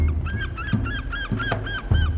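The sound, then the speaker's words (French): Seagulls cry out on Mukei, a large, grim grey island in the Pacific, in a quick, repeated series of harsh, nasal calls, fairly loud, over a steady low rumble with a few dull thumps. Nobody speaks. “On racontait que les mouettes y venaient nombreuses pour mourir.”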